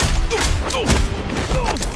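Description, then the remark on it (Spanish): A chaotic action-movie sound mix from a film trailer: gunfire bursts, blows, explosive impacts and cars rolling over, with sharp cracks and heavy thumps overlapping in a dense, loud barrage and faint shouting voices underneath. “Golpes, explosiones, coches que dan vueltas, la verdad, un auténtico desmadre de destrucción.”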